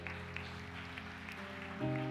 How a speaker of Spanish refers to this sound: Da un aplauso bien grande al Señor.